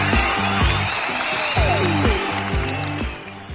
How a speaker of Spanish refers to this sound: Bien, este niño me agrada porque luego luego le vio el negocio. Aguanta el aplauso